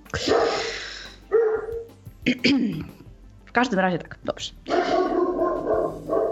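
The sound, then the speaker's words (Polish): A dog named Goguś barks a few times in short, sharp bursts in a village, interspersed with people talking over and between the barks. “słychać latające nade mną a teraz słychać e, szczekającego Gogusia.”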